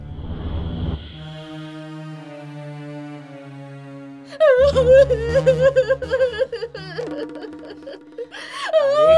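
A woman wails loudly and close by, first in a long drawn-out moan, then breaking into shaky, sobbing cries with a wavering pitch that rises and falls for several seconds.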